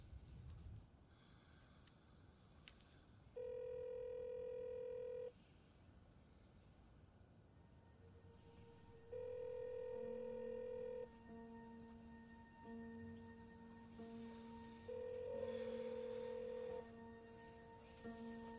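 A phone line rings out on an outgoing call made by a woman sitting on a bed: three steady electronic ring tones about two seconds each, spaced several seconds apart, over a faint background hum with no one speaking.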